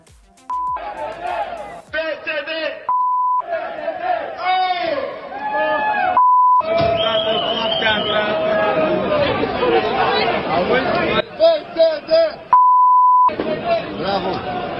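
A loud crowd chants and shouts together in bursts, with shrill whistle trills cutting through, and short steady tones breaking in between the chanting sections.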